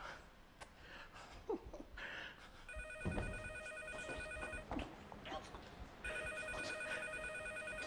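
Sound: telephone ringing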